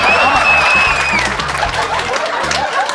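Loud audience applause for the performer's wife fills the space, a dense continuous patter of many hands clapping, with scattered crowd chatter and a few chuckles mixed in.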